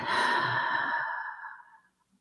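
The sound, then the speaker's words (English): A single slow, audible exhale during a counted breathing exercise, breathy, that starts full and gradually tapers off into near silence over about two seconds, with no talking. “It would go something like this breathing in, breathing out.”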